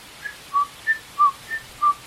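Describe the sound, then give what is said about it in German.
A person whistles an imitation of the song of the chiffchaff (Zilpzalp), a small grey-green leaf warbler that sings its own name: six short, clear notes alternating between a higher and a lower pitch in a steady, metronome-like rhythm, with no talking. “Ah, da meinen Sie ganz sicher den Zilpzalp. Das ist ein kleiner Laubsänger, ein graugrüner Vogel, der, der macht, singt praktisch seinen Namen.”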